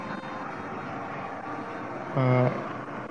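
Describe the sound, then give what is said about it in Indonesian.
An airplane passes overhead as a steady, broad roar that fills the whole clip at an even level, with a short hesitant vocal sound from a person near the end. “ini suara jalanan aja. Suara pesawat boy, sorry gue lagi di bawah eh, pesawat-pesawat nih lingkungan gue keren banget gitu loh kaum kaum jet set.”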